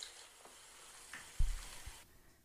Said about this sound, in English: Bath foam.